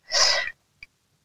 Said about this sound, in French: Ah, je pensais que vous avez, vous avez, pris votre respiration pour ne pas relancer la phrase oui, derrière.